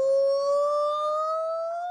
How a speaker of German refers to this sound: Diese Affen singen eindrucksvoll im Duett. Wie laut quietschende Sirenen tönen sie durch den Urwald und können sich auch noch im dichtesten Dickicht über große Entfernungen hinweg verständigen.